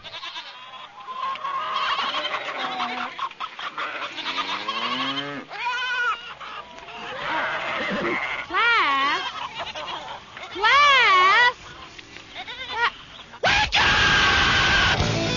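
A loud, busy jumble of farm animal noises, with wavering bleats and crowing calls tumbling over one another continuously for about fifteen seconds, ending in a burst of harsh noise.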